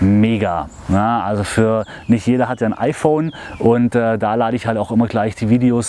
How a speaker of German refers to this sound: ihr werdet es wahrscheinlich hören an dem Gezwitscher im Hintergrund. Äh, so langsam kommt der Frühling wieder die Sonne scheint, die Vögel äh, zwitschern,